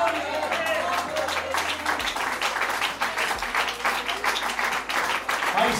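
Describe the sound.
An audience applauds steadily, dense overlapping claps forming a continuous, fairly loud wash with a few louder bursts throughout, and murmuring voices mixed in underneath.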